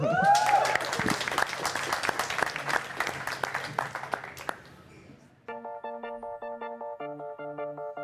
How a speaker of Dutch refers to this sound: Groot applaus!